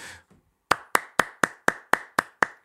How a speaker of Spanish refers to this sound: Un fuerte aplauso para que esté bien, para que tire para arriba. ¡Vamos!